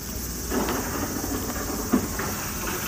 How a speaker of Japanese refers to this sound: 隣に遊園地があって、これはそのジェットコースターの音。音が怖っ。なんかやばいねなんか壊れそう